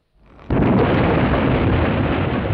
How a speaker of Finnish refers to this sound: Oi hyvät ihmiset, nyt taisi käydä hullusti. Tapahtui jonkinmoinen räjähdys. Kekäleet sinkoilevat kaikkiin mahdollisiin ja osittain mahdottominkin suuntiin. Joku onneton on pannut raketit ja muut ilo- ja surutulitusvälineet kokkoon.